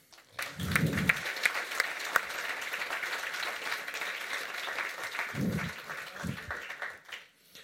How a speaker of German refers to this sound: Merci vielmals. Applaus.